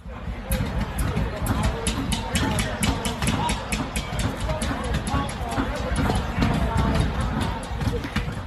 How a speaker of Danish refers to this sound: Demonstranterne står altså udenfor og banker på roden ind til dem, der tæller op, mens de råber stop med at tælle, stop the count. De har forsøgt at bryde ind i lokalet her.